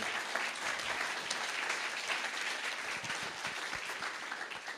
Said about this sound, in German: Ja, also du bist Jesus und jetzt ist aber Jesus immer noch da und ihr dürft mal diesem Jesus hier einen Applaus geben.